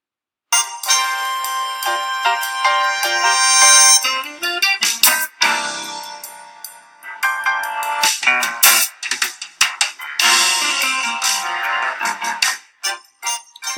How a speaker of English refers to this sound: Now, if we have a listen just to the very beginning of this, you'll see what I mean. I'll just click it up from here, actually. You'll see what I mean about the really cool music. Uh, here we go.